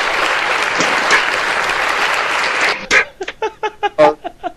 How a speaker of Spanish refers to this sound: Aplausos.